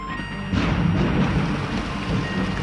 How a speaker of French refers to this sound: La pluie, ça a du bon Ça va les calmer un peu cette pluie.